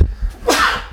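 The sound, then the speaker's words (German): A single sharp sneeze bursts out, a quick intake followed by an explosive, breathy blast that fades within a second, with no talking around it. “ja, Gesundheit.”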